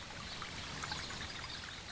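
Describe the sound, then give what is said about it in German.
Spring water bubbles and splashes steadily onto a very large stone hollowed out by the water, where a large basin of clear water has formed, at a spring by a small pond covered with autumn leaves; a continuous babbling with bright droplet sparkle, no voices present. “Fröhlich sprudelt das Wasser der Quelle auf einen sehr großen Stein, der schon völlig ausgehöhlt ist von dem Wasser.”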